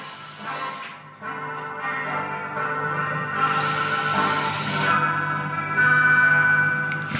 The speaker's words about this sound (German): Aber ihr hört schon, hier wird gebohrt und äh, Löcher vergrößert und am Elektrobrunnen irgendwie rumgewurschtelt. Ah, jetzt wird es gerade laut.